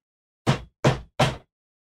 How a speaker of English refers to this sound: So just then, the door at the front of the gate, you hear a loud knock on it.